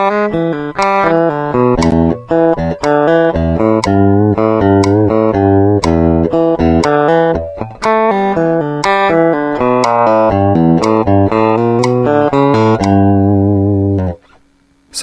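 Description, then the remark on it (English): A steady run of fast, evenly spaced notes on a pitched instrument, four to each beat, with a sharp metronome click landing once per second underneath. The passage is loud and continuous, with no talking. “So we're going to get the 4 16th notes within each click.”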